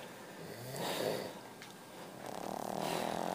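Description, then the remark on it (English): Two people snoring in the front room at about 2.30 in the morning, low rasping breaths rising and falling in slow swells, one deeper rumble followed by a steadier, noisier snore, with no talking. “These two fucking snoring in the front room.”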